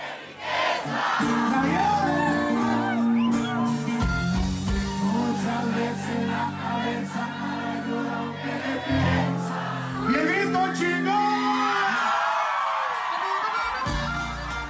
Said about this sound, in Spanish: Bien aplaudidas. Y coreadas con todas las ganas.